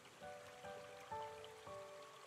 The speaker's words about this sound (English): Keep watching the stream and listen to the sounds of the water floating down the stream.